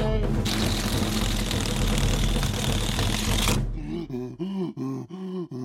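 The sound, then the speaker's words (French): A voice imitates a wolf taking its deepest breath and blowing hard at the little pig's house in a fairy-tale reading: a loud, rough, breathy gust held for about three and a half seconds, then a few strained, wavering groans. “Il prit alors sa plus profonde respiration et souffla comme un fou.”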